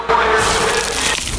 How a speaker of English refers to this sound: Is that the sound of an ooey gooey, cheesy, crunchy slice of PIZZA? Obviously.